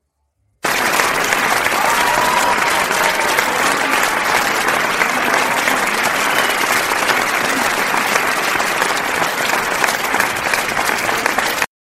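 Sustained, loud applause from a large audience as participants are introduced, steady clapping filling about eleven seconds with no pauses and without anyone speaking over it.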